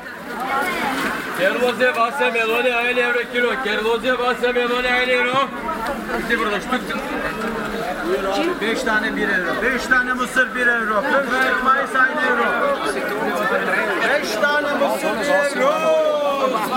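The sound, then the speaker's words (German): Dense street market crowd babble at the Brunnenmarkt in Vienna, recorded in June 2013, with overlapping customer voices mainly in Turkish, Croatian and German and loud vendor calls ringing out, a continuous busy hubbub with no pauses throughout. “Marktgeschrei und Stimmenwirrwarr. Ein Podcast aufgenommen am wiener Brunnenmarkt im Juni 2013”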